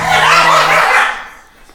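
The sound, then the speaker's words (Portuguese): Three dogs in a house bark in a brief, loud, rough burst, lasting about a second before fading into quiet. No one speaks over it. “pronto, eu tenho olha, só que pedir desculpa porque tenho três feras nesta casa, portanto, se ouvirem cães a ladrar.”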